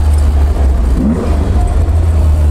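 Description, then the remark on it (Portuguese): An Alfa Romeo car's exhaust rumbles loudly, a deep steady engine drone with slight revving swells running through the whole moment, no voices. “esse som, a proximidade dos pedais, esse som do escape.”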